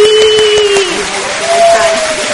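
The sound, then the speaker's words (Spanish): An audience applauds loudly and steadily for the whole stretch to welcome a guest, a dense wash of clapping with a sustained tone, like a held note or whistle, running over it. “Quiero presentarles, por favor, y que la reciban con un gran aplauso, claro que sí,”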